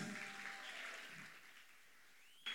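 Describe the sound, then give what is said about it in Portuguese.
A crowd of boys claps for the girls in a dense, steady patter that gradually dies away over a couple of seconds. “Meninos, uma salva de palmas para as meninas.”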